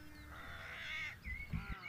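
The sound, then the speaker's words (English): Birds flitting to and fro on red rocks call outdoors in a few drawn-out, slightly harsh cries, over a low steady background rumble with a couple of soft thumps near the end. “Birds flitting to and fro on the red rocks, and the bubbling of the stream could be heard as they took a moment to really think about this.”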